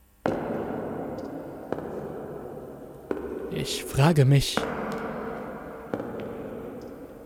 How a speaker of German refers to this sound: Außerdem kann ich wieder Schritte hören.